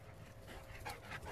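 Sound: dog panting and whimpering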